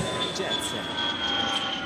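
A short 'Jet Set' segment jingle built on a steady, loud rumbling drone with a thin high whistle over it, like a passing jet or train, filling the whole moment without any talking.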